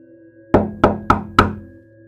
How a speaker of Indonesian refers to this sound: Ada yang mengetuk pintu kamarku. Bapak itu mengetuk pintu kamar.